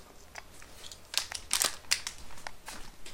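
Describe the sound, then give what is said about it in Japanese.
Scissors cutting a Bell Mark coupon off a Chicken Ramen package, a series of short, crisp, irregular cuts, some louder than others, with faint crinkling between them and no talking. “今ねあのベルマークを ベルマークを切りました知ってましたかチキンラーメンにはベルマークがついてます0.7点0.7点がついております”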